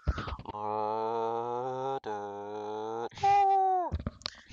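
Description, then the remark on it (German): A voice imitates the loud, droning buzz of fat black bees flying around a tree and around one's ear: a steady low hum held for a couple of seconds, briefly broken, then continued before rising into a higher whine near the end. “Und da fliegen so fette schwarze Bienen oder was es sind. Fliegen da einfach rum. Und die brummen so übertrieben laut.”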